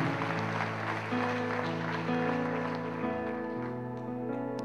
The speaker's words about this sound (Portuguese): Dê uma salva de palmas a Jesus aí, então.